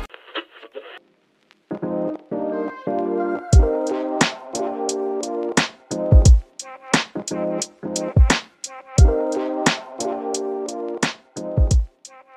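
An upbeat instrumental intro theme: after a brief sparse opening, sustained melodic chords kick in with punchy, regularly spaced drum hits and deep bass thumps, loud and up front, with no talking.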